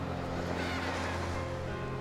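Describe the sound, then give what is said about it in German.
Rough, wild sea waves with wind-blown foam crests rush in a steady, loud roar that fills the whole clip, with a low droning hum underneath and no voices. “Das Rauschen des wild gewordenen Wassers schluckt jeden meiner verzweifelten Laute.”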